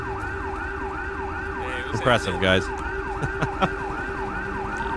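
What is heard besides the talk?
police car siren wailing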